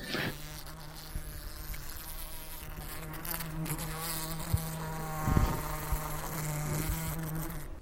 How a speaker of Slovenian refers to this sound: No, drugače smo poiskali, kako, kako se je osa oglašala. Dobro, bomo dali zraven.